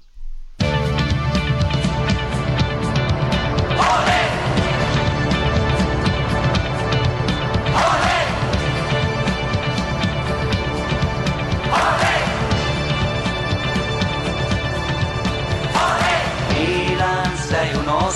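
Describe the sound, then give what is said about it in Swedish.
A loud, dense intro jingle plays throughout, full-band music with a steady driving beat and bright crashing accents roughly every four seconds, with no one talking over it. “Eh, ska vi rulla våran eh, erkänt applåderade vignettmusik?”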